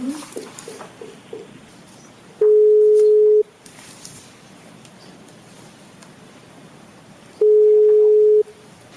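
A steady single-pitch telephone ringback tone sounds twice, each burst about a second long with a few seconds of quiet line noise between them, loud as if heard through a handset, as a call is placed to an interpreter during an interrogation.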